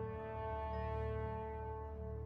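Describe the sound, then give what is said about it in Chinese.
A phone rings with a steady, buzzy electronic tone that holds at one pitch for the whole stretch, loud and unbroken, with no voices over it. “嘟嘟嘟，不一会儿，张小飞电话便响了一会儿。”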